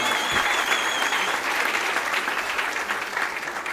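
A crowd claps steadily and loudly for several seconds, a dense wash of many hands with no voices standing out, fading slightly toward the end.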